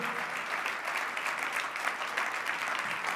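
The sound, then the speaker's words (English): An audience applauding the Lord steadily, a dense wash of many hands clapping at once with no pauses, fairly loud and even throughout, with no voices standing out. “Come on, if we're going to applaud the Lord, let's applaud the Lord.”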